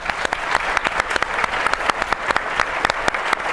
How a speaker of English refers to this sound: But let's give a huge round of applause to our AV and our events staff.